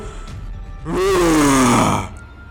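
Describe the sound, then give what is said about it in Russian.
A person voices a loud, drawn-out monster roar lasting about a second, its pitch sliding downward with a raspy, growling edge, then cutting off into quiet. “Причем пока он бежит, ты слышишь, как раздается какой-то рев.”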